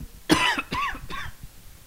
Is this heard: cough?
yes